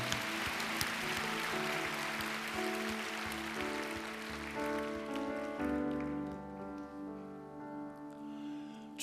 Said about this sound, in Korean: 우리 하나님께 감사와 영광의 박수 한 번 더 올려드립니다.